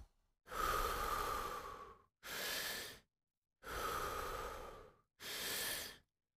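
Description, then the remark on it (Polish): Deep, rhythmic breathing during a breathwork exercise: two full cycles, each a long, rushing inhale followed by a shorter, forceful exhale, with brief pauses between. No talking. “Skup się na oddechu.”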